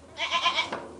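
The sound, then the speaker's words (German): A dairy goat bleats in a quavering, wavering call lasting under a second, clear, followed by a short tail of softer barn noise. It is recorded in front of the goat barn on a dairy-goat farm in Marktschorgast, Kulmbach district, Upper Franconia, Germany. No one speaks. “Man hört es ja auch im Hintergrund immer mal meckern.”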